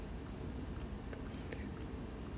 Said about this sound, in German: Ja, so klingt der Regenwald bei Nacht.